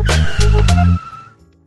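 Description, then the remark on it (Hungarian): A short radio jingle for Futómű, a morning car-industry radio segment, built from car sounds: loud engine rumble and a tire squeal swelling together for about a second, then a quick fade to near silence. “na mit szólsz a szó szignálhoz?”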